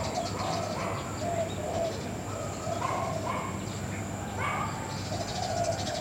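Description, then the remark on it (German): Birds call steadily in the background: soft repeated cooing like pigeons or doves, mixed with scattered chirps, over a constant outdoor ambience with no one speaking. “Hör die Tiere im Hintergrund, die Vögel, die Hunde.”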